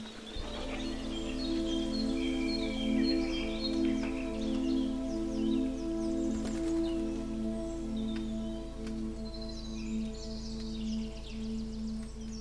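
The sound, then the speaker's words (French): Many birds chirp and twitter continuously as they fly off in a forest under a clear blue sky, their overlapping calls layered over a steady low droning hum. “oiseaux s'envolent et disparaissent à l'horizon.”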